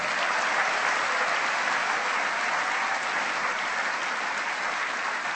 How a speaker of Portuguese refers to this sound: E se você crê nesta palavra, aplauda o nome de Jesus.